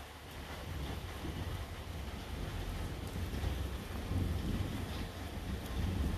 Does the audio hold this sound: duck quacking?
no